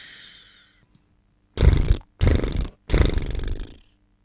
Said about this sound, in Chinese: 可可一躺上床就呼呼大睡起来。他的脸很胖，睡觉的时候发出奇特的声音：嘘，呼，嘘。